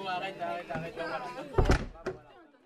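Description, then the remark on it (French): A door is pushed shut with a solid thud, followed by a second, lighter knock as it settles, after a stretch of indistinct voices talking in the room. “Ferme la porte, s'il te plaît.”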